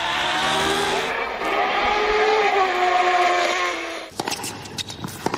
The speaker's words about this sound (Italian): Perché allora sento il rombo dei motori della Formula 1, i campioni della MotoGP che sfrecciano su due ruote